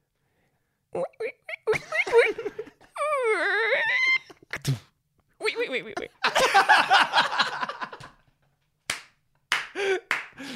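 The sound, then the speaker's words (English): A person vocally imitates Squeaky Mouse closing a squeaky door: a wavering, high-pitched creaking whine lasting about a second. Talking, laughter and a few sharp slaps surround it. “that was Squeaky Mouse closing a squeaky door.”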